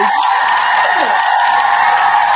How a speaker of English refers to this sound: He said, "Let me go ahead and put this goddamn hand clap in here,